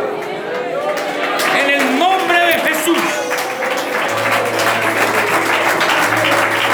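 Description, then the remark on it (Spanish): An audience claps loudly and steadily for the Lord, a dense wash of applause mixed with cheering voices and crowd chatter that stays strong throughout. “Dele fuerte se aplauso al Señor, que está aquí con al Señor.”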